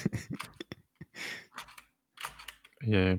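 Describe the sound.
A quick run of sharp computer keyboard key clicks as the keyboard is being measured, followed by breathy exhales and noisy rustling, ending with a short burst of voiced vocal sound like a laugh.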